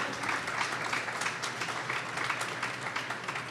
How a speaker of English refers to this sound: round of yeah, applause yeah clap it up